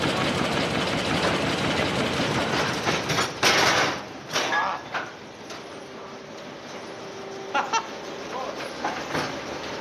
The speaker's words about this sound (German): Okay. So, das ist Sägewerk. Die Stämme habt ihr draußen gesehen und jetzt machen ja. wir aus den Stämmen mal kurz Bretter.